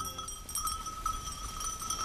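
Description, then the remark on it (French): Sheep grazing outdoors on university grounds, kept as ecological mowers for the grassy areas, with small bells on the flock clinking and ringing steadily over a low background rumble, no one speaking. “Pour l'heure, les moutons de l'université ne risquent rien.”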